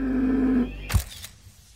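camera shutter click

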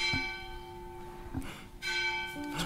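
church bells ringing

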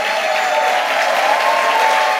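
audience applauding

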